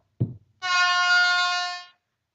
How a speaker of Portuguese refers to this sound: Eu acho que o padrão para largada tem que ser buzina. Quando toca uma buzina, eu saio correndo. A gente sai correndo sem nem perguntar, né? A gente até trouxe um exemplo aqui de como tem que ser o barulho da largada. Mostra aí. Prestem atenção.